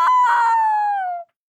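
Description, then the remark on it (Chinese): A voice imitates the squawk of the old woman's hen in a telling of The Ugly Duckling: one loud, high-pitched cry held for just over a second, sliding slightly downward before cutting off abruptly, with no other talk. “鸡说：“ 啊啊啊！”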